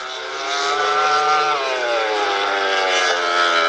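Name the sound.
motorcycle engine revving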